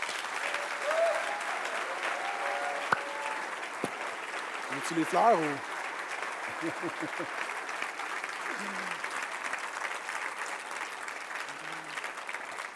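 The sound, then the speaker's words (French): A room full of people applauds steadily for the whole stretch, a dense wash of clapping to honor a man for his work in youth ministry, while a voice speaks briefly over it. “Est-ce qu'on peut lui donner une bonne main d'applaudissement?”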